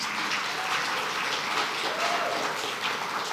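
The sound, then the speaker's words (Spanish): An audience applauds the King of Kings steadily, a dense, continuous crackle of many hands clapping at an even level throughout, with no voices standing out. “Si tú lo crees, dale fuerza, el aplauso al Rey de Reyes.”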